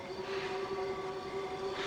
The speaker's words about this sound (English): Look, I'm gonna honk the horn one more time. Just give me the flashlight. No, no, I'm, I'm gonna honk the horn, and we're gonna wait a minute, and then if they don't come, well, we'll go.